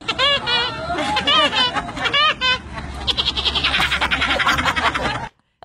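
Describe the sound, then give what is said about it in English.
A woman in America imitates Woody Woodpecker's laugh, a loud, rapid warbling cackle in repeated bursts, followed by a busier, noisier stretch before it cuts off abruptly. “but a woman in America's gone viral for doing an excellent impression of him”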